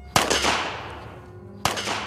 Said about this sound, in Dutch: In groepjes van vijf worden ze geëxecuteerd met een schot in de nek.